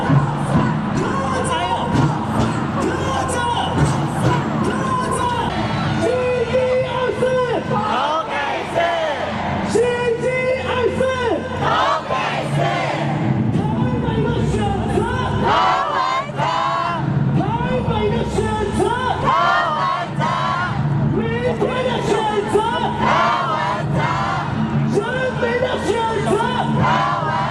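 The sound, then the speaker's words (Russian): A large crowd of Taiwanese supporters chants and yells in unison at an election rally for their candidate KVNZh, loud rhythmic shouted calls such as who Taipei chooses repeating over a constant dense roar of voices throughout. “Так тайваньцы кричат в поддержку своего кандидата КВНЖ и говорят, кого выбирает Тайбэй, КВНЖ, кого выбираем завтра, КВНЖ, кого выбирает народ, КВНЖ.”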